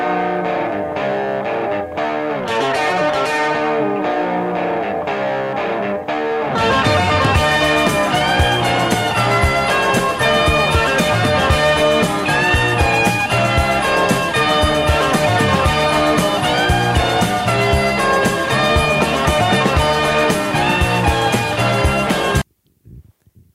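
A distorted rock guitar solo rings out with bending, sustained lead notes over a full, loud band; the instruments kick in harder after a brief intro, then cut off abruptly near the end.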